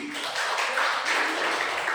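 An audience claps for Jesus, a dense wash of many hands at a fairly loud, even level for the whole stretch, with no voices standing out.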